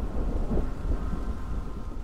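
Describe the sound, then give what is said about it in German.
A deep, rumbling thunderclap, striking together with a lightning flash near the summit of the Zugspitze, rolls through steady rainfall, its low boom swelling and fading over a couple of seconds with no voices present. “Kaum zehn bis zwölf Schritte von der Spitze entfernt betäubten uns ein Blitz und ein zu gleicher Zeit erfolgter Donnerschlag derart, dass wir glaubten, alle Berge müssten zusammenstürzen.”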